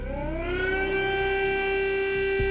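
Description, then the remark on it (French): A civil defense air raid siren in Kyiv, the capital of Ukraine, alerting the population during a massive Russian attack, winds up in pitch, then holds a loud, steady wailing tone with a rich harmonic ring, sounding continuously without any voices. “À Kiev, la capitale, les sirènes alertent la population.”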